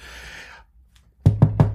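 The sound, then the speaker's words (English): Four firm knocks on a big wooden door in quick, even succession, solid, following a brief rustle and a moment of silence. “That's me knocking on your door.”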